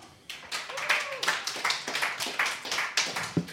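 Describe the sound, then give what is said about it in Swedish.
An audience breaks into applause for the next performer, a dense stream of hand claps starting abruptly and holding steady at moderate loudness, with a few voices and whoops mixed in. “En applåd!”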